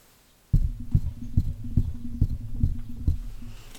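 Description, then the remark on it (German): Something presses and bumps against a microphone pop filter, making a steady series of about eight boomy, muffled thumps over a low rumble, with no one talking. “Wir haben jetzt gerade dagegen gedrückt.”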